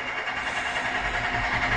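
A pneumatic jackhammer breaks up asphalt in front of a front door in the morning, producing a steady, loud mechanical rattle with a harsh, noisy texture that holds constant throughout, with no voices.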